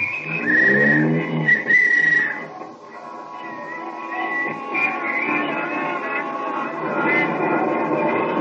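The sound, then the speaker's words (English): A taxi cab rides up Broadway through busy evening street traffic toward a theater off Times Square, a steady engine rumble and road noise running throughout, with a shrill whistle or horn-like tone sounding a couple of times near the start. “There'll be plenty of traffic tonight, so let's get an early start to the theater. Here's my cab.”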